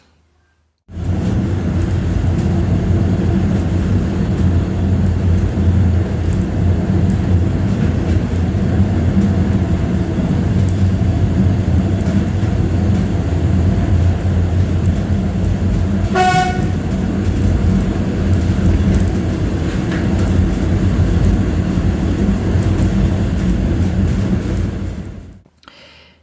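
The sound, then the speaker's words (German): A steam train on a narrow-gauge line running from Gernrode through the Selketal to Alexisbad rumbles and clatters steadily throughout, with one brief, shrill whistle toot sounding partway through. No one speaks. “Da sind wir dann nach Gernrode in einen äh, gefahren und dort in einen Waggon gestiegen, der hinter einem Dampfzug hing.”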